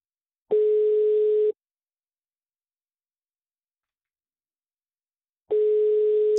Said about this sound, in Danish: Vi ringer til Ole Kronegård, nu prøver vi Peter Kronegård.